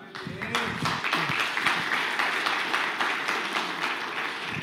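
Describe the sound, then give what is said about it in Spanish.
An audience applauds steadily, many hands clapping in a dense, continuous wash of sound, with some voices calling out underneath. “Déselo fuerte a Él, hermanos.”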